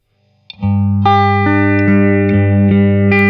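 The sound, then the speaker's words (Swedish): A loud, sustained electric guitar played through a Phase 90 phaser pedal doing a sweep, chords re-struck roughly every half second in a steady rhythm, the processed tone swirling and shifting as it rings, with no talking. “Face 90-ljudet är ju det som alla känner igen, som är det som är mest använt av alla Face-ljud”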